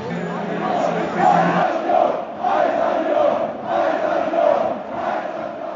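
A loud stadium crowd roars before kickoff, a dense wall of voices rising and falling in waves, with chanting swells every second or so and no single voice standing out.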